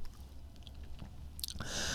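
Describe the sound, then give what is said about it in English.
A person chewing a chew: wet chewing with soft squishy clicks and smacks in an uneven rhythm, ending in a brighter, hissy rustle. No one speaks. “Sorry, I got a chew in my mouth.”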